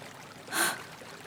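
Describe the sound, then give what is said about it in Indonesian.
A soft, steady wash of flowing river water that briefly swells into a louder rushing surge midway, then settles back to a quiet, continuous murmur, with no voices. “Wahai sungai yang baik, kemana kamu menuntunku?”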